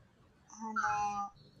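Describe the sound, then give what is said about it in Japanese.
A single drawn-out caw from one of many crows gathered overhead, harsh and harmonic, rising out of quiet background noise and lasting under a second before fading, with no talking around it. “昨日こんないなかったのに今日めっちゃカラスいるんだけど。”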